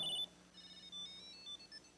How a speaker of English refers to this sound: you can find your phone by the tile in your wallet by holding down the button and uh, it'll begin to ring. Can you hear that?